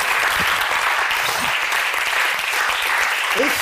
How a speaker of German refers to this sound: Also deswegen ist der Applaus, der jetzt kommt, für all die, die eben aufgezählt wurden. Danke.